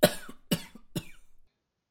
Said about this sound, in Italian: Si fermò a bere tranquillamente, ma quando le due bambine si scostarono, l'ultimo sorso dell'aspro succo gli andò giù di traverso, facendolo tossire come un dannato.